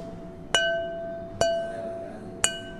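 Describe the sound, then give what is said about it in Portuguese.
An ordinary machine-made red wine glass is tapped three times at an unhurried pace in a glass museum workshop, each sharp clink followed by a clear, bright ringing tone that lingers and fades, fairly loud against a quiet background. “Isto é um copo de vinho tinto. É um copo de vinho tinto, um copo normal. Feito à máquina, está a ver?”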